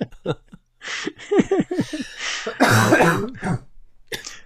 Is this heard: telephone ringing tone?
no